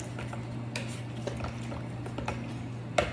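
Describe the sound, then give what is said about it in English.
A knife clinks and scrapes against a bowl while breaking up sourdough starter in water, with a few irregular light taps over a steady low electrical hum. “We're gonna take our knife again and just break that starter up into it.”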